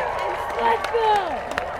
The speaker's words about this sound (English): I'm going to wait a minute and let that crowd die down for a minute.